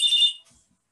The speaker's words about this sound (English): The phone rings.